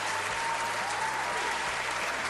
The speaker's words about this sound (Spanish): Eh, unos, unos, este, unos aplausos por su cumpleaños.